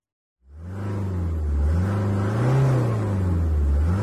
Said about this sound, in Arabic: انطلقت السيارة السوداء تحت المطر المنهمر اهتزت السيارة عند وصولها إلى المنعطف الأخير